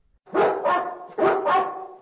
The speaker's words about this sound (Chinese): 一天，艾丽莎突然听到猎狗的叫声